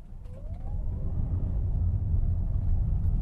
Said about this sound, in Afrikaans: Dis die eerste keer dat Toyota Suid-Afrika 'n hibriede masjien plaaslik bou. Dis hoe dit klink as jy die kar aanskakel. Jy hoor niks. So wanneer jy die kar aanskakel en wegtrek,